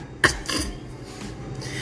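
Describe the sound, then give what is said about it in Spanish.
A voice imitates the sneeze of a soaked deer: one sharp, forceful burst of breath, followed by a softer, breathy trailing sound and a quieter, airy hiss. “Empapado, comenzó a estornudar.”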